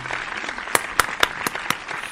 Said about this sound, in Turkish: Ee, aile desteği dediğin için ailene ben kocaman bir alkış göndermek istiyorum müsaadenle.